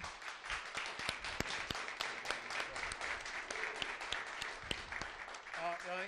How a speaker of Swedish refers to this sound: Där kom fler grejer, och sen kom det helt plötsligt en, en applåd där från ingenstans.